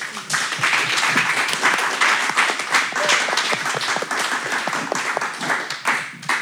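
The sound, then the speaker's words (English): An audience at the Podcasting Festival in the Netherlands breaks into a dense round of applause for the guests, many hands clapping steadily for several seconds before it starts to thin out toward the end. “If we could give her on a, a round of applause.”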